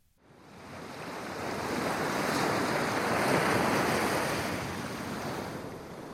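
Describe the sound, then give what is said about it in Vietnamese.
Ocean waves wash steadily onto a beach at sunset in a broad, continuous rush that swells and slowly recedes, with a breezy hiss over it and no voices. “Bờ biển với khung cảnh hoàng hôn buông xuống, tiếng gió thổi trong khu rừng yên tĩnh, những giọt mưa rơi dưới mái hiên.”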